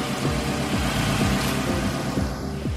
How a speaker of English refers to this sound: Who's this? Who's this guy? Oh no! Cops pull up.